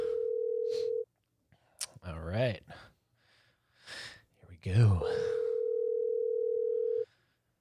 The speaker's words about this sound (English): So let's go ahead and dial her up.